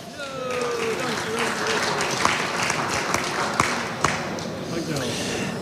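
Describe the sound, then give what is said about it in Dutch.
An audience gives sustained, warm applause for the entrepreneurs' collective Mel, a dense steady patter of many hands clapping for several seconds, with a few voices and calls mixed in underneath. “even alvast een warm applaus voor ondernemerscollectief Mel.”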